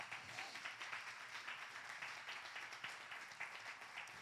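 A crowd applauds steadily for about four seconds, a dense wash of many hands clapping at once with no pauses, moderately loud, applause given to Jesus.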